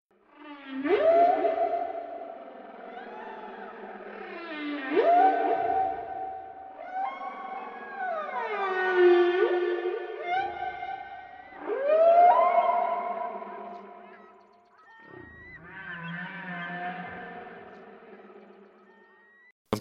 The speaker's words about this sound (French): on ne sait toujours pas bien pourquoi les baleines chantent.